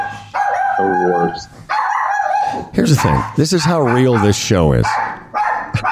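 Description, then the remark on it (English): A small dog yaps and barks in two sustained, shrill bursts, followed by people talking over the noise. The dog has 300,000 Instagram followers. “you're going to hear the aggravating sounds of a small dog barking”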